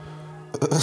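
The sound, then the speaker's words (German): After a brief near-silent pause, a single sudden sneeze bursts out, loud and breathy, cut off just as it peaks. “Gesundheit.”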